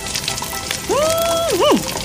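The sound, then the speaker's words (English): Steady crackling sizzle of a piece of preserved fish frying in a pan, continuous, with a brief tonal hum rising and dipping partway through. “He picked up a piece of preserved fish from a bowl and began frying it.”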